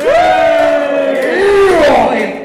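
A loud burst of audience cheering and shouting to vote for which contestant should have got the points, with sustained voiced whoops that rise and fall together for a couple of seconds before fading slightly.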